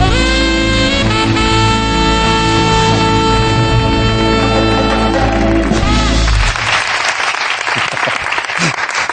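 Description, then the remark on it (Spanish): Sustained tonal music gives way to loud, dense percussive hitting, like rapid conga drumming, which carries on for the last few seconds. “¿No has oído como un to, to, to, to, una conga?”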